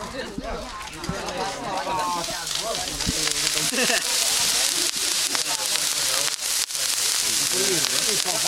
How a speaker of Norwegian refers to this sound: Eh, det er bl.a. reinskav som driver og stekes bort på en grill her.